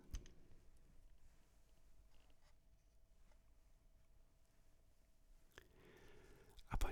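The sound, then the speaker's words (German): Wooden dice rolled through a solid-wood dice tower by Ratskellos clatter and click, with a few sharp knocks among softer, scattered rattling. The sounds are quiet, and a louder burst of clicks comes near the end. “sich in einem Würfelturm von Ratskellos aus Echtholz. Wie schön das klingt, so ungemein beruhigend.”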